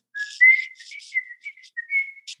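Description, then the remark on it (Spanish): A person whistles a lively tune of short and sustained notes, fairly loud, mimicking the upper of the two opening trumpet lines of a mariachi song, with a brief breathy sound at the end. “empiezan con dos trompetas. Entonces él me decía, ¿cuál haces? ¿La de arriba o la de abajo? Y ya, pues no, la de arriba. Entonces ya íbamos, yo iba chiflando la trompeta.”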